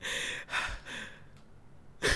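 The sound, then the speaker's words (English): A person imitates the heavy, straining breaths of a little red-faced child: a few loud, breathy huffs in quick succession with short pauses, with no words. “just breathing really hard, waddling around with shit in your pants, taking everything in for the first time.”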